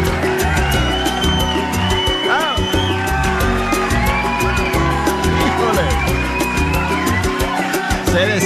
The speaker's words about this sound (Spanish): destaca, se destaca el pelirrojo como siempre, con su grito ahí.